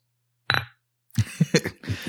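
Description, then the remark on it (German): A single bright clink of vodka glasses touching in a toast rings briefly and fades, followed by a second of muffled knocks and shuffling. “So, dann oh. sage ich jetzt erstmal Prost, ne? Ja, Prost.”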